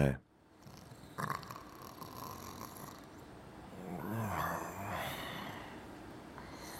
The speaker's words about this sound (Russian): Данис Матиуш, стоя перед решеткой камеры в подвале под своей типографией, смотрел на лежащего и пьяно храпящего человека в очень дорогом костюме.